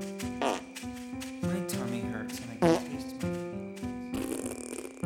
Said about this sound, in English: depart with a fart